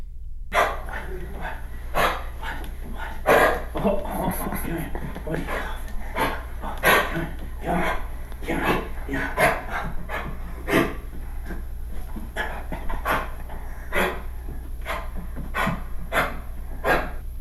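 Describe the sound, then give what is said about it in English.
A dog with kennel cough coughs over and over in harsh, honking bursts, a steady run of hacks lasting the whole stretch, loud, with a person briefly speaking and laughing. “This is what kennel cough would sound like.”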